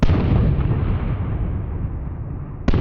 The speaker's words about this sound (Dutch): Bijna een kwartier lang hoorden inwoners continu het gegier van vallende bommen en ontploffingen.